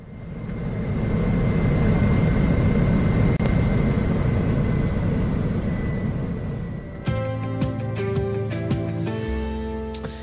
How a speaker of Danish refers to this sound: Øhm, de to nye fly, de er leaset i første omgang for to år. Det er altså eldrevne fly. Vi slutter lige med lyden af dem.